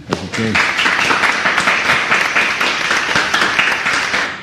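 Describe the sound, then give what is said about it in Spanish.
A crowd at a presentation applauds itself steadily, a dense wash of many hands clapping at an even loudness, with a brief voice at the start before the clapping takes over. “Eh, quiero pedir un aplauso por ustedes.”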